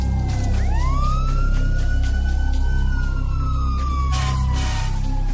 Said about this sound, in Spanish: La sirena de la ambulancia y el camión de bomberos se oyeron a lo lejos.